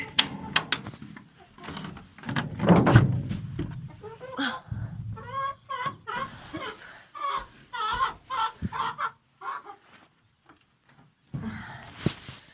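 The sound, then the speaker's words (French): Hens leaving the henhouse on a sunny morning cluck and squawk in a busy, overlapping burst, with scattered short calls and rustling as the flock moves, then a brief quiet before a last cluck. “Voilà, les poules sont sorties.”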